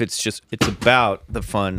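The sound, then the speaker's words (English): A plastic water bottle is knocked over, giving a brief hollow thump and clatter in the middle of someone's ongoing speech. “I just knocked over a bottle of water.”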